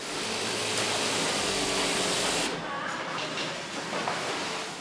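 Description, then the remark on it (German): A loud overlock sewing machine, worked by a trainee, whirs steadily as it stitches two layers, wadding and leather, together; its dense mechanical hum shifts slightly partway through and continues without pause. “An der Maschine kettelt Laura die beiden Lagen zusammen.”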